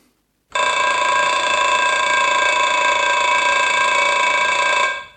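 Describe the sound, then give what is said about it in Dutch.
An alarm clock goes off at half past seven, waking a man from deep sleep, ringing loudly and continuously for several seconds, a bright, buzzing metallic tone that starts abruptly after a brief silence and stops just as suddenly. No voices are heard. “De wekker liep om half acht af en haalde hem uit een diepe slaap.”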